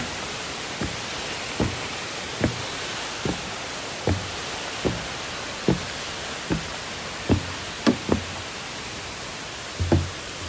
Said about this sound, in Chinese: 好像我们又要再爬一个楼梯。好哦，继续爬。我就不太能讲话，就大家听我的脚步声，应该快到了。